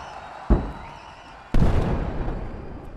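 A sharp thump, then a large crowd bursts into loud, dense applause that keeps going steadily to the end, many hands clapping at once with no voices.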